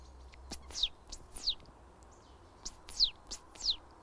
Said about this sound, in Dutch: Dat is glanskop. Het niesende geluidje.